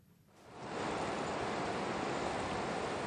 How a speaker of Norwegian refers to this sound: Det blåser en frisk sommervind, og bølgene går hvite langs strendene her på østkysten av Gotland.